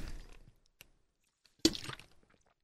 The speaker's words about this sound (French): Je me reprends une petite gorgée d'eau.